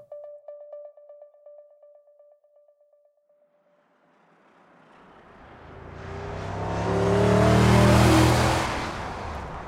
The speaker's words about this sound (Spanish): El sol todavía no se pone en Zapopan, al norte de la zona metropolitana de Guadalajara, Un hombre armado conduce una camioneta a toda velocidad, perseguido por patrullas. La camioneta es robada.